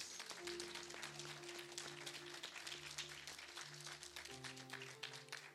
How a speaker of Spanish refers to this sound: Dale un aplauso a Cristo otra vez.